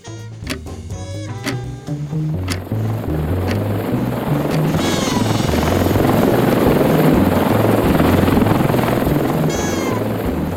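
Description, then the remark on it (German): A military propeller aircraft in flight at night, with its rear ramp open, throbs with a steady, rattling low pulse beneath a loud rush of wind noise, the roar swelling after the first couple of seconds and holding constant throughout. “Die Propeller des Militärflugzeugs knatterten und erschwerten zusammen mit dem Rauschen des Windes das Hören.”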